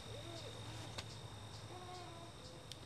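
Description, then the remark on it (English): Faint insects chirp in a steady high drone outdoors at Troy Gardens in Madison in late autumn, with soft low hooting calls drifting in now and then and a couple of small clicks. “You can hear the insects singing their final songs, squirrels frantically preparing for winter, and migratory birds preparing for their long journey.”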